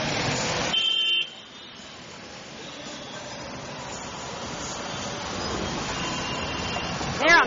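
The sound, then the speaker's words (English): Dense road traffic, with bikes going right between the other vehicles, roars steadily, with a sharp car horn blaring at the start and a brief louder burst of engine noise near the end. “Here's more traffic.”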